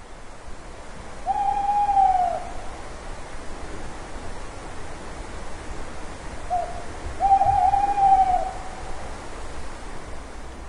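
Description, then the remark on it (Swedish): An owl hoots twice, each call a drawn-out, slightly wavering note, spaced several seconds apart over a steady hiss of night ambience. There is no talking. “Men ensam var hon till ljudet av en uggla.”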